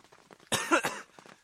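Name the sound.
coughing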